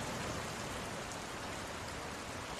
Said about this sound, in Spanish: Te voy a dar un dato ahora, chequea esto. Los truenos. No, no, no, chequea, chequea. Esto es en vivo ahora mismo.